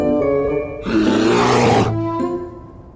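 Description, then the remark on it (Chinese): A bear roars loudly, a deep rumbling growl that swells into a harsh, rasping blast in the middle before easing back into a lower, drawn-out growl. “果然，他刚刚开始砍柴，熊就气势汹汹的出现了。”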